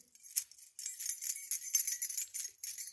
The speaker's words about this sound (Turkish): Ve yelken sesi ve rüzgar sesini de ve her şeyi sesini duyabilirsiniz. Anahtar sesi gibi.